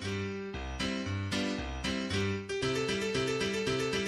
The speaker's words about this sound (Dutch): ik heb toen eh, op YouTube gezocht en toen vond ik een uh, eh, karaoke versie van dit roemruchte lied.